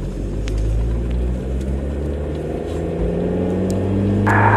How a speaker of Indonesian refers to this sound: sibuk dengan pekerjaannya, John di sisi lain sedang di dalam mobil berkendara menuju rumah Abdul, teman baik John.